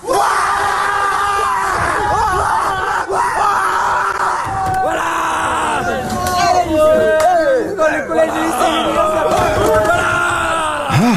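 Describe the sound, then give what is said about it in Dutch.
A large crowd of boarding-school students cheering and screaming loudly and continuously at the announcement that schools, colleges, crèches and universities will close, with overlapping high-pitched shrieks and excited yelling rising and falling throughout. “Ja, maar eh, je moet vooral luisteren hoe die aankondiging onthaald werd op de internaten.”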